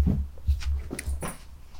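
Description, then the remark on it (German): A pet dog making noises beside its owner during a recording: a few short, breathy snuffling bursts spaced irregularly over a low, steady rumble, with no one talking. “hat bemerkt, dass ich hier den Podcast aufnehme und will unbedingt ein paar Geräusche machen”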